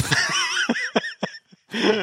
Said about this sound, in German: Hust, hust.